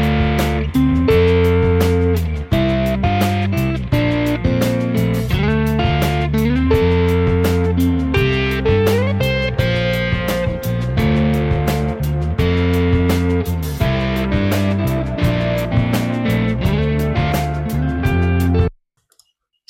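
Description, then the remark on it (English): An electric guitar drenched in a nasty delay, reverb and a second delay, with a stack on the left and a clean guitar on the right, plays a steady, loud riff with echoing, overlapping notes and a gritty edge, no voices, cutting off abruptly near the end. “and I'm just now we have the stack, the uh, clean guitar on the right, stack on more on the left, and I'm adding uh, the nasty delay, and then after that I will turn on the reverb and the other delay.”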